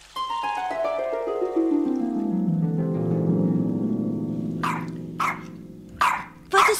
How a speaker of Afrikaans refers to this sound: hoor hoe benoud Saartjie blaf